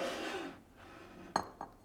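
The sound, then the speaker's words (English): Ceramic mugs clink together twice, a sharp knock followed by a softer one, after a stretch of soft rubbing and shuffling as mugs, including clear ones and one shaped like a cat, are picked out from a collection. “From the sound of porcelain mugs to water boiling”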